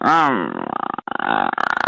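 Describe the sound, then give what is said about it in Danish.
A person growls vocally, a low rumbling voice imitation of an animal growl lasting about two seconds, with a brief pause midway before the gravelly rumble resumes, fairly loud. “Mm, jo, det er bare knurre.”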